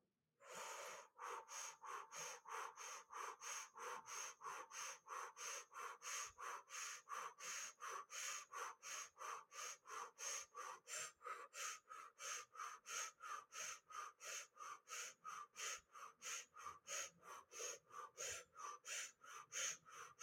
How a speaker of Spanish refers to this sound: vamos a comenzar a hacer respiración de fuego por la boca, inhalación y exhalación al mismo tiempo.